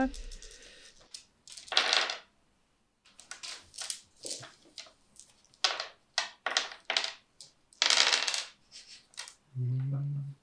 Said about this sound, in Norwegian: Har du veldig mye terningrulling